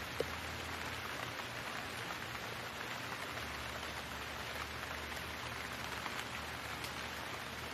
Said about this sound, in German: Höre, wie die Tropfen zu einer Sinfonie des Regens werden.